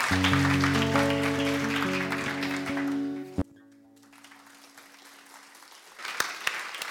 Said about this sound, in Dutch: Heel warm applaus.